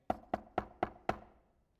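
Five firm knocks on a door, evenly spaced in a quick steady rhythm, each with a short hollow ring, clear with no voices.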